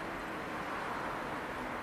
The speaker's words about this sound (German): Hörst du das Rauschen der Autos?